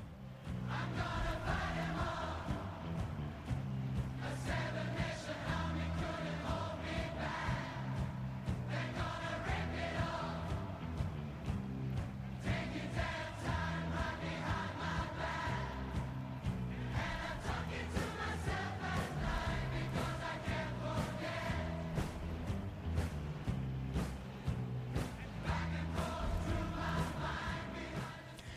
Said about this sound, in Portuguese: Agora imagina isso você presente num estádio gritando. Uou, uou. Não precisa de letra. Sacou? Essa música não precisa de letra, até porque a letra não faz nenhum sentido.